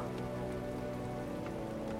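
Steady rain patters onto a hard surface, a dense continuous wash of droplets with occasional brighter splashes, even in loudness throughout.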